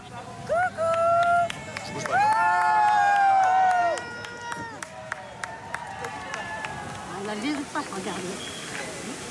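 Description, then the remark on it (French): Dozens of onlookers outside the gates of the Palais du Pharaon in Marseille, trying to see the Pope up close, chatter and call out excitedly, with high whistles or shouts rising above the steady babble and scattered sharp claps or clicks. “Devant les grilles, des dizaines de curieux tentent de le voir de près”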